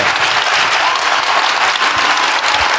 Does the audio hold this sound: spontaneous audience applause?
yes